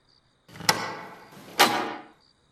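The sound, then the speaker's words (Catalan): A key turns twice in the lock of a farmhouse door just slammed shut: two sharp clunks roughly a second apart, joined by a rough scraping rattle, then quiet. No voices. “Després, dues voltes de clau.”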